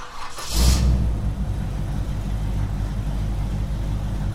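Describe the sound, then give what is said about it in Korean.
A combustion-engine car starts up with a brief burst of noise, then settles into a steady, low rumbling idle with no talking; the car is passing by, spewing acrid exhaust. “이 소리는 기후 위기를 심화시키는 내연기관차가 매캐한 매연을 뿜으며 지나가는 소리입니다.”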